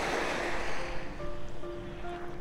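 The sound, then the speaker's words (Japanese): Steady ocean surf washing onto the shore in Kanagawa on a sunny early morning after days of rain, a broad continuous rush with some low wind rumble against the microphone, moderately loud, with faint tonal hums in the background. “ずっと雨が降っていて、えー、なかなかいい天気がない日が続いたんですけど神奈川は特に、えー、本当に降ったり止んだり今日たまたま、えーっと、久々に晴れ間が見えたので海に来てるんですけど、えーっと、とそろそろ涼しくなってきたので朝早く起きて、えー朝の波音配信を復活しようかなと思っています”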